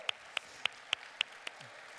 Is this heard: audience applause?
yes